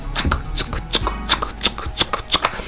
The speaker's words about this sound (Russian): Сигнал принимался радиоузлом, а затем транслировался по проводному вещанию. Ленинградское радио выводило в репродукторы звук метронома.